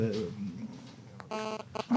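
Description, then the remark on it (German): A telephone beeps with a steady electronic tone, then a second shorter beep follows, both fairly loud, amid low murmuring voices. “jetzt kann es schon so ein, so, ein, so ein doofes Telefon aus dem Konzept rein.”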